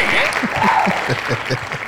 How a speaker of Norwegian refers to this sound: Så du kan gi han en applaus. Bare kutt den applausen med en eneste gang.